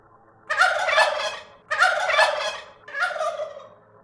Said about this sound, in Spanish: y el glugluteo de un guajolote.